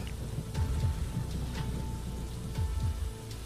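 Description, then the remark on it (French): Heavy rain pours down steadily during a raging storm, a dense wash of drops with a deep rumbling undertone, fairly loud and continuous with no voices. “Et alors que la tempête fait rage tout autour, tu n'entends pas vraiment ce qu'elle prononce, qu'elle scande, tu ne le comprends pas.”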